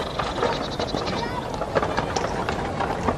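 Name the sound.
horse hooves clip-clopping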